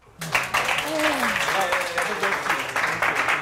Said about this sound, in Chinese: 不然我们给他们一个一个很热烈的鼓掌。